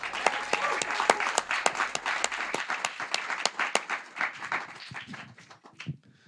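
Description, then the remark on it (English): A lecture audience welcoming Young Guru applauds with a dense, steady patter of many hands, sharp individual claps standing out, before the clapping thins and tapers off toward the end. “always feel weird when people clap for me.”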